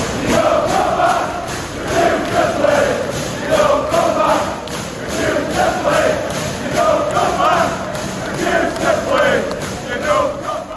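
A large crowd of Leeds football fans chants loudly and aggressively in unison, a rhythmic, repeated hostile chant with rising and falling swells, dense and reverberant.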